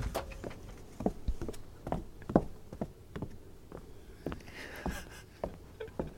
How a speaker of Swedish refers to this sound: Det är någon som går ner för en trappa upp. Ja, precis.